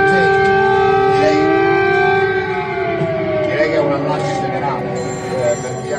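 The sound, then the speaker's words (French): Air raid warning sirens in Kyiv, Ukraine, warning of a risk of bombing and sounding for nearly two hours, wail continuously, their long rising and falling tones overlapping loudly, with a faint murmur of voices underneath. “Les sirènes qui préviennent d'un risque de bombardement.”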